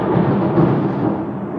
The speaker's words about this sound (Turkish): Acaba duyuldu mu bu gök gürlemesi? Büyük ihtimal duyuldu. Ha, çok iyi oldu. Deminden beri yağmur yağıyor.